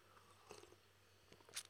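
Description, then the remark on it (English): A quiet sip of a matcha drink: a soft wet slurp, a brief pause, then another short slurp and lip smack near the end, with no talking. “Ah, oh, sip on that matcha.”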